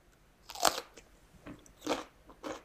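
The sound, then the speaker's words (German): A crisp, crunchy bite into raw celery, followed by a few sharp, crackling chews with no talking. “Sellerie.”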